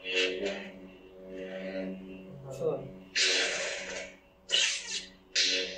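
A steady, buzzing electric hum runs throughout, broken by three loud, breathy whooshing swings near the end, like a lightsaber being switched on and swung through the air, played as a sound effect during a presentation.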